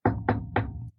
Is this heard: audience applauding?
no